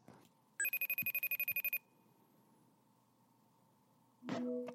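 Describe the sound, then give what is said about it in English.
A telephone rings in a quick burst of about a dozen rapid, bright electronic pulses, followed by quiet hum and then a short clunky noise like a handset being lifted. “So now I'm doing this little interlude or segue into the phone call being picked back up again”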